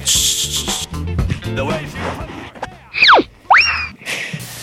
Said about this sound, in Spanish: El sonido del auténtico platanaco de Paco, eh, abriéndose.